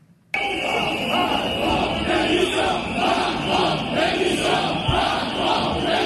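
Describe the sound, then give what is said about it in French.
A large crowd of protesters boos and chants "Macron démission" loudly and continuously as President Emmanuel Macron arrives at the Salon de l'agriculture, Porte de Versailles, voices overlapping in a dense roar with rhythmic shouting, starting abruptly after a brief quiet moment. “Les huées Macron démission.”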